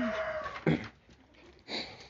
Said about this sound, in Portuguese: Vocês ouviram um gatinho brincando um cão, um cachorrinho. Quer dizer, assim, o Dom quer é é brincar. O Rengar não gosta muito.